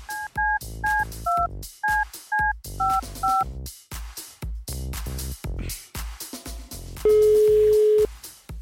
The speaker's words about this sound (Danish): okay, så ringer vi til farfars pizza nu.